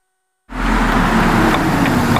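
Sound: car engine driving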